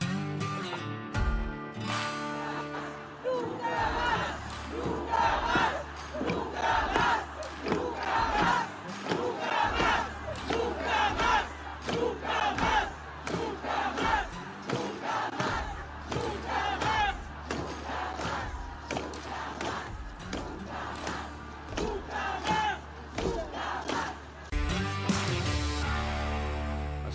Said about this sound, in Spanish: Vamos a empezar recordando lo que sucedió anoche, hace unas horas, tan solo de mujeres chilenas gritando nunca más.